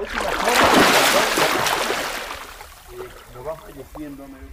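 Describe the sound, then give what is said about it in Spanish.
Trino swims across underwater without breathing, churning through the water with a loud rush of splashing and turbulence that fades after a couple of seconds, leaving quieter water sounds and faint voices talking in the background. “¿Se puede captar el sonido de Trino atravesando sin respirar?”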